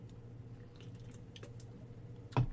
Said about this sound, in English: To wrap up this week, after I take one more sip of the bubbly,